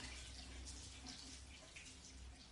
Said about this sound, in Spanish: Lo llena de agua.